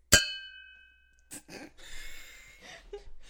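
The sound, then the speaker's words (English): A single bright clink of two glasses of raspberry martini touching in a toast, its clear ringing tone fading over about a second, followed by soft breathy sounds and murmurs from people. “That's totally how you cheers. This sounds so clinky.”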